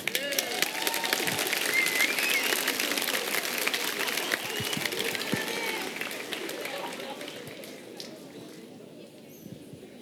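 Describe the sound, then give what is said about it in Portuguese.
A crowd bursts into steady, dense applause with scattered cheers and voices mixed in, holding loud for most of the stretch before thinning slightly near the end, responding to a preacher's challenge to go a day without a cell phone. “Eu não ouvi os aplausos.”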